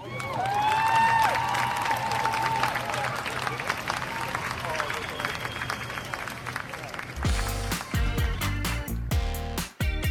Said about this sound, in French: Tonnerre d'applaudissements pour Mid.